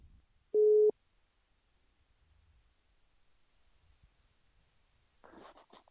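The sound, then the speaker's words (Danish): A single short, steady electronic telephone ringing tone sounds once as a call is placed to someone at home, followed by several seconds of near silence on the line before a voice briefly picks up at the end. “lad os prøve at se, om uh, øh, … er hjemme og har lyst til at tage telefonen”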